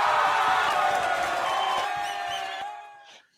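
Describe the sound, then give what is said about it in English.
A cheering crowd sound effect played during a Podbean Live stream: a crowd cheers and whoops loudly all at once, a dense wall of voices that holds steady for a few seconds, then fades and cuts off near the end. “Let's get some cheers on it too.”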